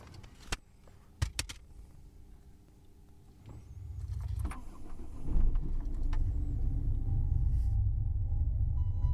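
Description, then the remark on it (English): A few sharp clicks and a jangle, then a car engine starts and settles into a steady, low rumble that grows louder as the car drives along on a morning commute to work, with no one talking. “I, on my journey to work every morning, as you can hear, listen to music to energize me before my workday, and it's a part of my routine.”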